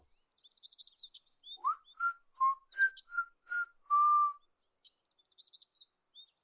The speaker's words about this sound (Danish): Fuglene flyver stadig og synger, og Geo begynder at fløjte med.